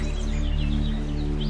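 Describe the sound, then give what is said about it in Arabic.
Forest ambience of wind, trees and small birds chirping faintly, layered over a steady, constant, loud low humming noise drone that dominates the mix; the chirps repeat softly throughout. “وهو صوت ضوضاء كونستنت اللي عملته اني ضفت على هذا الصوت صوت الغابة في صوت الضوضاء وفوقيه صوت الغابة وهاي صوت الغابة فيها هواء وعصافير وشجر”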